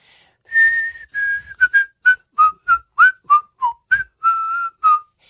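A person learning to whistle blows air out in a quick tune, about a dozen short, bright notes in a steady rhythm, a few held slightly longer, with no talking.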